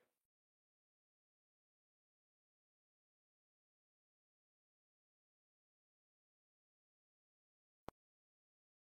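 A call's audio drops out: a brief burst of faint noise cuts off into dead silence for several seconds, broken only by two sharp, isolated clicks near the end.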